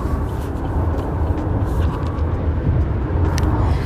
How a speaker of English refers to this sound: The traffic is a. Uh, if anybody lives in Houston, you know how this traffic can be.